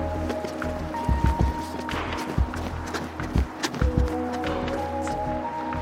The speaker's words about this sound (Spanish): Para comprobar qué tan posible es que el conductor no me viera, cronometramos el tiempo que me demoro en cruzar la avenida corriendo. Cuando dé el verde voy a correr ya.